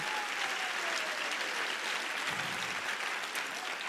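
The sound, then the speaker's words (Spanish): Sustained applause for the Lord from a large church audience during a sermon, a steady dense wash of clapping with no pauses and without any talking. “Y si usted lo cree, dele un mejor aplauso al Señor de ahí.”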